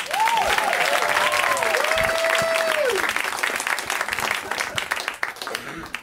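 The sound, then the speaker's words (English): Loud, dense applause from a sizable audience for comedian Shane Torres, with a few whoops and cheers rising over the clapping before it gradually thins and tapers off. “Let's hear it one more time for Shane.”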